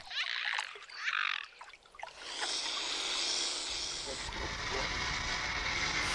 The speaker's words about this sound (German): Ein fauchender Schwan, wahrscheinlich hat der gerade schon einen umgehauen. Ähm, das hat ja der Vogelexperte vorhin erzählt, dass die manchmal kräftig hinlangen mit dem Flügel.